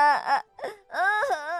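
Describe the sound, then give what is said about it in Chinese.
A man's voice wails and sobs in a sad, exaggerated way, acting out a bearded uncle crying while sitting on the grass: a short wavering moan, a brief break, then a long loud wail with quivering, sliding pitch. “他哭得可伤心了。”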